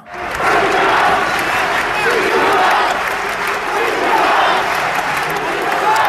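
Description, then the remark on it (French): A large crowd at Roland Garros chants the name of Greek tennis player Tsitsipas in unison during his match against Novak Djokovic, a loud, steady roar of massed voices with rhythmic swells, mixed with scattered clapping and cheering throughout. “Vous entendez les tsitsipas, pass, scandés par le public.”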